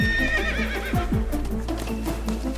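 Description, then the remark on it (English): The horse Starlight whinnies loudly, its shrill neigh wavering, while a rapid clip-clop of hooves and a low rumble continue underneath as it rides deeper into a canyon with rising water. “With his spyglasses, he watched how the horse rode deeper and deeper into the canyon without being distracted by the rising water.”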